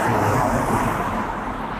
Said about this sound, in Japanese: 車の音めっちゃ多いっ